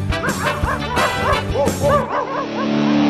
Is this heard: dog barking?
yes